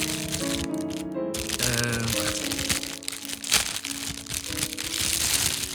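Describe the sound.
Crinkling and crackling of a wrapper being pulled off a cake, followed by scattered crunchy, rustling sounds of cutting, with a voice murmuring underneath at moderate loudness.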